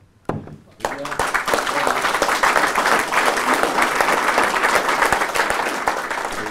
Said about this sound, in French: Je crois que cette euh, euh, ces applaudissements hein, se passent de commentaires.